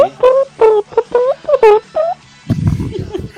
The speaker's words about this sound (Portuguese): Meu, é que ele tá esfregando o chinelo na grade, daí faz esse barulhinho estranho.